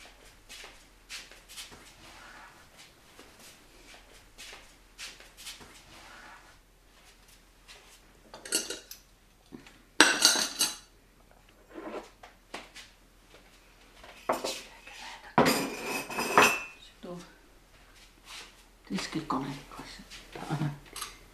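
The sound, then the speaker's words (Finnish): Dishes and cutlery being gathered up, with scattered clinks and louder clattering bursts as plates and utensils are stacked, faint voices murmuring now and then in the background. “kerätä näitä astioita”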